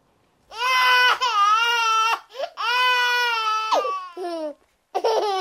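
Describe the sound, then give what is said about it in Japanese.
A baby cries loudly in long, wavering wails broken by short gasping breaths, ending with a couple of brief sobbing bursts. No one talks. “泣いたり笑ったり気づいていますかそれは赤ちゃんからお母さんへのラブコール”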